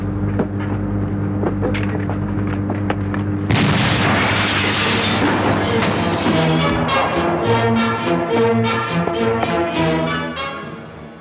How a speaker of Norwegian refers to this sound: 20 meter utenfor bygningen var vi da eksplosjonen fant sted. Den var ikke så kolossalt kraftig. Det For meg som var sistemann ut av fabrikken, var det et stort smell. Og vi så en veldig ildsøyle bak oss.